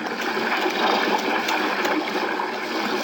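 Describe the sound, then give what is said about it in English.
A steady, full rush of a river current surging past an undercut bank during a storm, loud, with a constant hiss and churn and no voices over it. “it's been rolled, Chester. Smashed up pretty bad by the current.”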